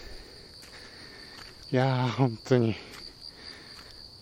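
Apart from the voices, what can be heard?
autumn insects chirping outdoors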